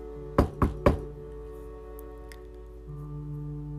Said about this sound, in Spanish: Tocan a la puerta. ¿Quién será? ¿Qué querrá?